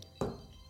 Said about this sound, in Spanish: hablando de audios, ese fue mi teléfono.